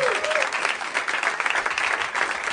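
Steady audience applause fills the space, a dense patter of many hands clapping at once, loud and sustained without a break, with a brief whistle or cheer rising near the start.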